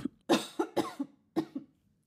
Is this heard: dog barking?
no